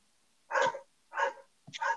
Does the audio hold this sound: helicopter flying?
no